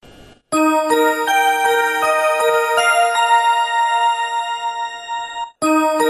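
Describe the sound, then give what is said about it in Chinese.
A Japanese train station departure melody, a tune also used as a prompt sound on Chinese high-speed trains: a bright, bell-like electronic tune plays a quick run of sustained, ringing notes for about five seconds, loud and clear with no voices over it. “那我们就跟大家讲一讲一些比较有意思的一些铃声吧，好吧？”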